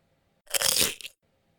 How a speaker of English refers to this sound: I'll edit all this out, and we'll hear the little chip bite thing, and we'll be uh, we'll be good.